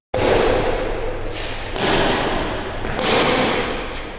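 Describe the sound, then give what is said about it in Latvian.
Three sharp, airy smacks of a badminton racket striking a shuttlecock, spaced about a second and a half apart in a rally, with echoing ambience between hits. “Tās bija badmintons.”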